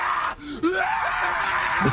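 fox screaming

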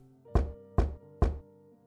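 knocking on a door

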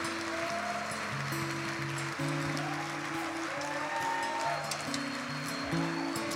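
audience applause

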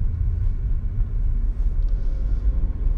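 car driving past

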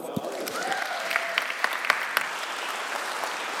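audience applause welcoming speaker

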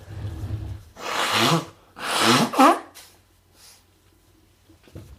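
blowing nose

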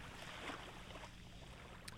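waves on a beach

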